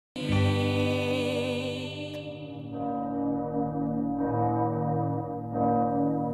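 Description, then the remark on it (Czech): Church bells ring out with rich, sustained harmonic tones, several strikes overlapping and slowly decaying, the high shimmer fading away while deeper tolls keep sounding at a steady pace. “Do hlasu těch doznívajících zvonů znovu představím našeho dnešního dopoledního hosta.”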